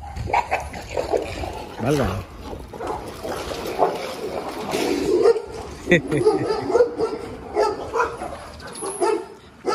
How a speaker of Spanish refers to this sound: Yo pensé que nos iban a ladrar a nosotros y se pusieron a pelear entre ellos.